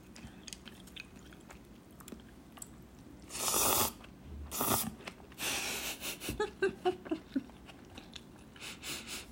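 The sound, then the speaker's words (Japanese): Noisy slurping of chilled somen noodles in a few loud airy bursts, followed by a quick series of wet, rhythmic chewing and sucking sounds, with no talking. “そうめんすすってる音しかしないじゃんいや全然いいんだけどいや美味しい”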